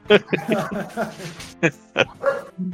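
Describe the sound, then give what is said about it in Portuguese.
A dog named Pipoca barks agitatedly in a rapid series of sharp, loud barks, with a few brief pauses and a low whine near the end. “Olha a confusão, né, o cachorro tá revoltado.”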